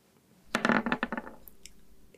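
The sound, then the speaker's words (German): Dice, including a bonus die, are rolled across a hard table in a quick burst of sharp rattling clicks that settle down, followed by a couple of softer isolated taps as they come to rest. No one speaks. “Das heißt, du darfst zweimal würfeln.”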